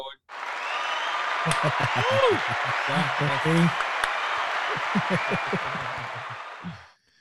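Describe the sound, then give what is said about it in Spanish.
A burst of crowd applause, given to congratulate Peter on earning his top fan diamond, fills the whole stretch, dense and steady for about seven seconds before cutting off, while a voice talks over the clapping. “Vamos a un aplauso.”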